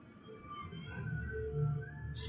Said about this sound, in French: j'ai mis des sons en fait d'un animal du jeu dont je vais vous parler, un jeu vidéo donc, qui s'appelle Subnautica, qui a été développé par Unknown Worlds Entertainment